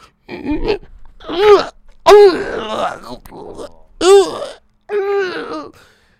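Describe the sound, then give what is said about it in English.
A fairly loud voice imitates someone gasping for help: a series of strained, breathy groaning bursts with short pauses between them. “like oh just like gasping for help and then he's under the table and you can still hear those sounds”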